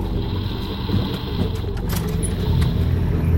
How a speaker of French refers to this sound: Un hélicoptère, vous le voyez Oui, on le voit d'ici, il vole pas il est en train de survoler ma cabane. Il se dirige droit vers la forêt.